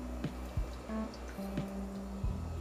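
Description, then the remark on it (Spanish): Someone takes a small sip of water: a few soft wet gulps and small mouth clicks spread over a couple of seconds, with no talking. “Ah, me di un buchecito de agua, mi gente.”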